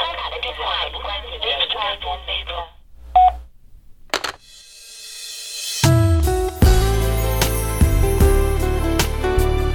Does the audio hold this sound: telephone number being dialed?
yes